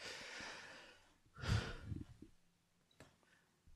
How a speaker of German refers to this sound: Gesundheit, ja.